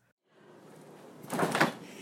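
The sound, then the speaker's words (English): A freezer door opens with a soft seal sound, followed by a brief burst of rustling and clunking as last week's food is pushed inside the freezer, over a low steady hum. “All right, Jamie Oliver, this is the sound of me putting all of last week's horrible food in the freezer.”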